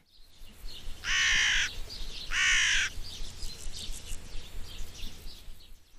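A crow gives two loud, harsh caws about a second apart, each drawn out and raspy, against a faint outdoor background with soft bird calls.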